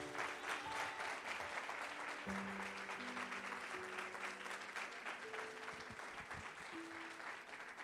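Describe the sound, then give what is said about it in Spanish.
A crowd claps for God for about eight seconds, a dense, even wash of applause that stays loud throughout, with faint sustained musical tones humming underneath. “Denle un aplauso a ese Dios poderoso.”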